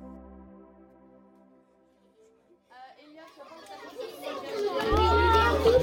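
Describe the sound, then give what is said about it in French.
After a steady, droning tone at the start, a crowd of children's voices in a classroom breaks out in overlapping chatter, swelling steadily louder and busier until the end. “Là, ce volume, ce volume, ce volume est trop fort. Il y a des, enfants qui travaillent déjà.”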